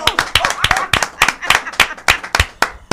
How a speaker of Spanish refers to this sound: vamos a recibirla con un aplauso, como si no la conociera